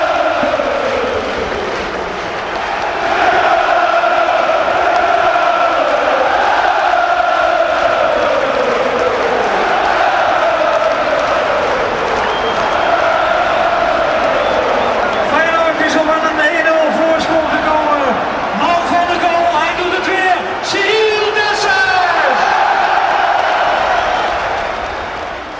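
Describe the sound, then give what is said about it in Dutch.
A packed stadium crowd at De Kuip erupts in loud, sustained cheering after Cyril Dessers scores to put Feyenoord 1-0 up against Marseille, a dense roar that swells into chanting, with shrill whistles cutting through near the end. “En de Kuip ontploft.”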